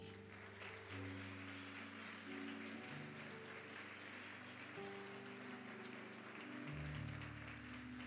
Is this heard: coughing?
no